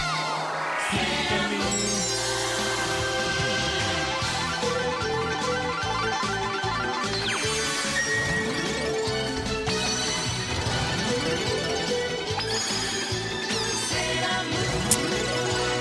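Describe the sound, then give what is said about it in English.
Energetic theme music plays loud and continuous, with dense layered instruments, a steady driving beat and swooping, sliding synth tones throughout. No voices are heard. “Let's get that music.”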